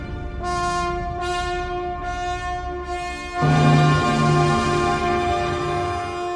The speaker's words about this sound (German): Und ich habe eine persönliche Lieblingsstelle in diesem Satz. Da setzen die Hörner eins nach dem anderen ein und das Licht verändert sich.